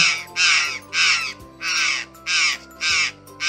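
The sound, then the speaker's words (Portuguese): A jay caws six times in a steady, evenly spaced series of harsh, raspy calls, loud, over a faint low hum with no voices. “Começa com a gralha.”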